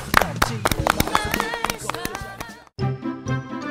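A burst of brisk hand clapping mixed with bright, tinkling music. The claps cut off abruptly near the end, and the music carries on alone at a steady level.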